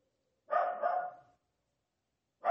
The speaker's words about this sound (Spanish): Está contestando a esos perros, unos perros que están ladrando sin. O sea, llevan un rato ladrando sin parar.